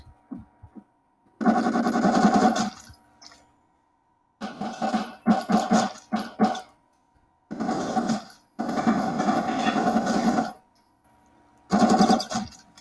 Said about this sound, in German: schießt du mir noch so rum, ey? Hier, ich knall ihm ein, ein paar ins Gesicht, ey.